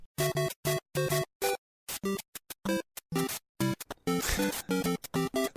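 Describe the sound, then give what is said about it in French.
Bouncy 8-bit music from Super Mario Bros, a 1980s Japanese video game by a company that earlier made Hanafuda cards, created by Shigeru Miyamoto: short, staccato square-wave notes in a quick, hopping rhythm with brief gaps, a buzzier noisy stretch midway, and no talking. “et oui, Super Mario Bros, petit jeu un peu pointu d'une compagnie japonaise qui faisait des cartes Nafuda avant et puis qui a décidé, euh, voilà, petit créateur euh, Shigeru, Miyamoto.”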